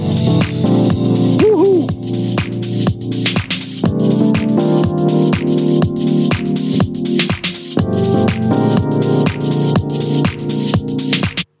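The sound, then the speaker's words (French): Loud electronic chords play through a Note Echo function in music software, each note bouncing back in quick rhythmic repeats that pulse steadily throughout, with no voices over the music. “j'ai pas bien compris exactement comment ça marchait, mais ça fait euh, des, échos sur vos notes, sur les accords.”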